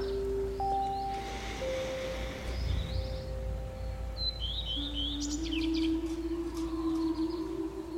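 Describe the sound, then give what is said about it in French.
Birds chirp and whistle on a hot day over a steady low rumble, mixing long held tones with bursts of quick, high twittering. Nobody speaks. “Ces oiseaux qui m'accompagnent chaque fois.”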